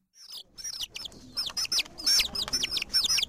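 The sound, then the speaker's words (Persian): Five small yellow baby chicks peep in their nest in a corner, in quick, high-pitched chirps that overlap and repeat steadily, fairly clear, with no voices or other sounds mixed in. “یکی دوتا تا سه تا چهار تا پنج تا آخی پنج تا جوجه کوچولو موچولو و زرد و نقلی این گوشه توی لونشون دارن جیک جیک میکنن”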